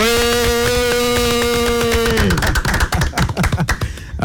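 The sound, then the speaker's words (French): A sustained musical chord rings for about two seconds, then gives way to a dense, loud burst of studio applause from a crowd at Suite FM radio in Douala, Cameroon, applauding the Yango service, with no talking. “Et j'ai envie, euh, franchement, qu'on applaudisse encore une fois de plus très très fort Yango”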